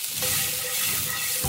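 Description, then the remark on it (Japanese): Fried rice sizzles steadily in a wok tossed on a Panasonic IH cooking heater, a dense crackling hiss with soft scraping and shuffling as the pan is tossed, a brief thump near the end. No voices. “パナソニックの IH クッキングヒーターなら、高火力だし、鍋振りもできるもんね。”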